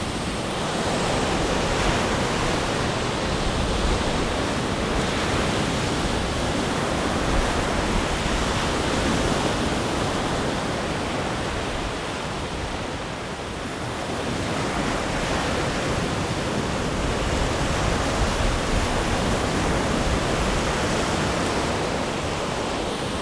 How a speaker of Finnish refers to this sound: Tämä on tietysti ihan yhtä huminaa, kun tarkemmin ajatellaan. Tuuli pitää oman äänen, vesi toisen äänen ja sitten lehtiä kahisee. Ja kivet ehkä vielä tuossa rannassa.